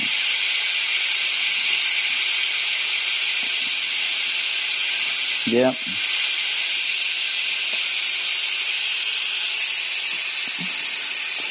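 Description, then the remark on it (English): Steam hisses steadily and loudly from a fully open pressure cooker valve while a dish with mushroom soup cooks, a constant bright rushing sound for the whole stretch, with one short word spoken partway through. “Wow, there's a lot of steam in here, man.”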